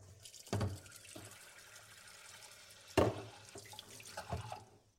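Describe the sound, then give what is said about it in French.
A saucepan that was used for butter is quickly rinsed under a running tap, with a steady rush of water broken by two sharp clanks of the pan and a few softer knocks and splashes. “Déjà, je lave un petit coup ma casserole qui a servi pour le beurre.”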